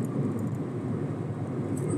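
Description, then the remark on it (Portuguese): A steady, droning low rumble of bus noise fills the whole stretch, a continuous engine-and-road hum with no distinct voices over it. “Barulho do ônibus.”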